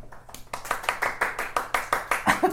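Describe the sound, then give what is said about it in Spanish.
A studio audience claps, a steady run of sharp, bright hand claps at a quick even pace that builds slightly in loudness over a couple of seconds, with no talking. “Un aplauso desde el foro.”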